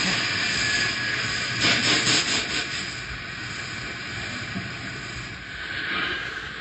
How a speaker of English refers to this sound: It, it looks slower. Yeah. I think it's working coming around last curve. Slowing. Just about a thousand feet between it and the edge. Drag of curves on rest of train, slowing it down. Curve. He's stopping.